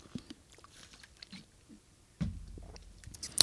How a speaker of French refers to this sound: Gorgée d'eau. pause, pause, petite gorgée d'eau.